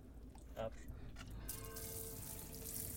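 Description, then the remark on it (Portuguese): Tap water starts running about halfway through as cold water is used to rinse hair, a steady splashing hiss that continues to the end, with people talking softly underneath. “A água não está quente. Vocês estão a lavar sobre com água fria.”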